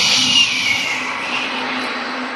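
A gong is struck to quiet down a room of members and guests at a City Club of Chicago event; it rings loud and sustained, its bright metallic shimmer washing steadily over a low hum for a couple of seconds with no voices.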